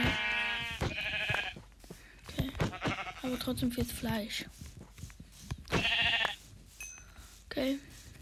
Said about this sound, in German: Ah, hier sind zwei Schafe. Dann haben wir gleich auch genug für ein Bett. Oh, okay. Das sind sogar drei Schafe, aber wir brauchen nicht